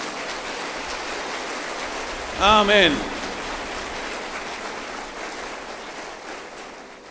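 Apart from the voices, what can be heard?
audience applause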